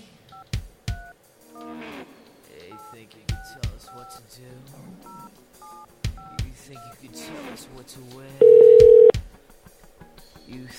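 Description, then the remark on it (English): A phone number is punched in to call wrestler X-Pac: sharp button clicks, each paired with a short touch-tone beep at an uneven pace, then a single loud, steady ringing tone before the line goes quiet. “And uh, since I'm good friends with the Pac Man, I figured we just give him a call, dial it up, and uh, we'll see what he has to say.”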